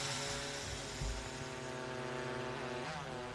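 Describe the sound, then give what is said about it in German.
A drone's propellers buzz steadily in flight over a field too large to search on foot, the drone detecting fawns by body heat; a sustained, fairly loud whine with harmonic tones that shift slightly in pitch, heard alone without any voices. “Und ein paar Kilometer weiter versuchen sie es erst einmal mit einer Drohne.”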